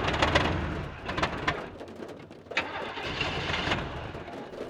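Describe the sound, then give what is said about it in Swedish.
A car engine cranks repeatedly with a rough, churning whir, sputtering in bursts but never catching, while birds call faintly in the background. “Uh, den verkar inte gå igång. Menar du att motorn har dött?”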